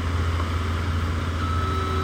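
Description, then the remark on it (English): A truck's reversing alarm sounds as a steady high-pitched tone while the truck backs up about 30 feet away, over the heavy, continuous rumble of an idling diesel engine. No one speaks. “There's a beeper, uh, which tells you that the truck, a truck, uh, is backing up.”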